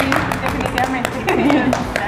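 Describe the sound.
A few people clap in quick, uneven bursts of sharp hand claps for about two seconds, while voices talk and murmur underneath at a steady, moderate level.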